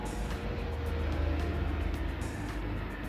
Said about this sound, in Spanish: Ahí va pasando un helicóptero, vamos a ver si el micrófono lo capta.